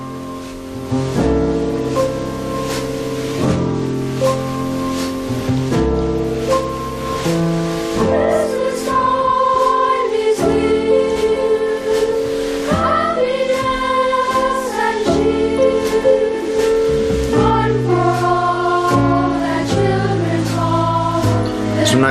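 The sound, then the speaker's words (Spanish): Gentle jazz piano trio music from the Peanuts Christmas film, with a mellow, festive holiday feel: soft piano chords over walking bass and light brushed drums, steady and fairly full throughout, with no voices. “nos parece que estos momentos previos, esta calma previa a la tormenta, suena un poco como esta canción preciosa de la peli navideña de, de Carlitos Brown, de Snoopy, de Peanuts,”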